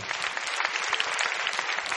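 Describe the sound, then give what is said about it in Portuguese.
A church audience applauds a standing group of people who are to be baptized: steady, a dense wash of many hands clapping at a fairly loud, even level with no voices standing out. “Vamos aplaudir esse grupo que está aqui.”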